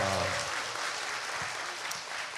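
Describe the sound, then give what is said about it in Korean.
An audience bursts into applause, a dense, steady crackle of many hands clapping that stays loud throughout, with a brief low voice sound at the very start. It is the audience of the Korean talk show Kkoltong Show, whose hosts have asked for generous applause for a guest. “다시 한번 좀 아낌없는 박수 한번 좀 부탁드립니다.”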